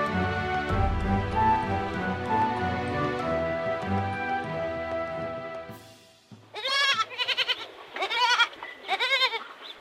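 Sheep bleat three or four times in quick succession, loud and wavering, after a steady humming drone fades out; no one speaks.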